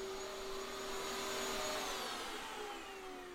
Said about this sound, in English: Except, of course, I'm not doing it. Somebody else is. And she's lovely. Say hello. Hello. Thanks for doing the hoovering